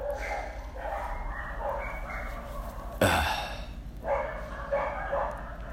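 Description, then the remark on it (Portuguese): A dog barks in a few sharp, separate bursts, one louder yap cutting in around the middle, over a steady low background hum with no talking. “Isso, cachorro, late.”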